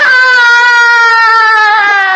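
A group of people lets out one long, loud shout together on the count of three, after raising their shoulders and pushing the air down with their palms in an exercise. It is a steady high-pitched yell held for about two seconds before it cuts off. No talking accompanies it.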